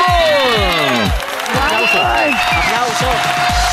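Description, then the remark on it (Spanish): Loud applause with crowd cheering on the radio show Vibra en las Mañanas, a dense steady wash of clapping underneath a series of swooping, whistle-like tones that glide up and down throughout a few seconds. “Gracias, gracias por los aplausos.”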